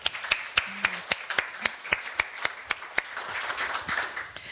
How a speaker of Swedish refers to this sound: Ni får en applåd till att börja med. Tack.